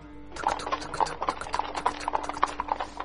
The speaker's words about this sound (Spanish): Un eh, que un día venía de a caballo, pues venía de vuelta a su casa, asumo que borracho, y venía... Venía a caballo